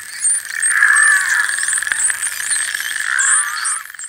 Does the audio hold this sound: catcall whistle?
no